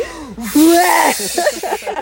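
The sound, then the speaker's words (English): A voice imitates a man spraying vomit after eating a full container of brownies: a loud, hissing, spluttering burst lasting about a second, trailing into broken voiced sputters. “just fucking like spray like he's a fucking sprinkler.”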